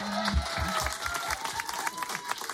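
A crowd on a radio show applauds a person's singing steadily, a dense wash of many hands clapping at moderate loudness throughout, with a brief sustained voice or tone at the very start.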